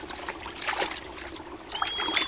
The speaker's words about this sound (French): Ah, voilà la rivière, mon paradis, c'est de l'autre côté. En moins de deux, le hérisson traverse le petit cours d'eau à la nage.